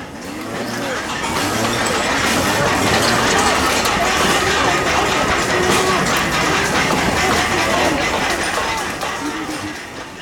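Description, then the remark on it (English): A chaotic street clash at a bridge by a university: many voices shouting over a continuous loud roar of a leaf blower used to repel tear gas clouds, with a few sharp pops of tear gas canisters being fired, bricks being thrown and glass-bottle Molotov cocktails shattering. “There's a leaf blower trying to repel tear gas clouds. There are tear gas canisters being fired.”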